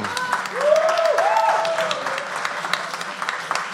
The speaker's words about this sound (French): Oui, vous pouvez l'applaudir hein, quand même.